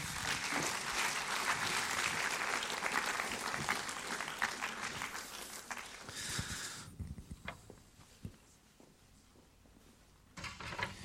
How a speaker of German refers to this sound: Und wenn das für dich so ist, darfst du gerne noch einen Applaus geben, weil es dir auf der Bühne geht. Merci vielmal.